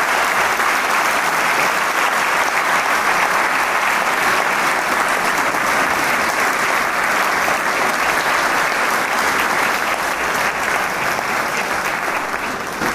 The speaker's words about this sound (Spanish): Y bien, el aplauso cesa, las luces se encienden y esta primera parte del octavo concierto de Camerata de Coahuila eh, con el solista Sergio Vargas Escoruela termina eh, con la obra de Félix Chopin, eh, el concierto para piano número 1, opus 11,